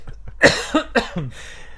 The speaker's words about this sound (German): Ähm, nein, nein, ich habe mich nur ein bisschen verschluckt.